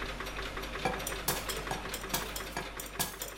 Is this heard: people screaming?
no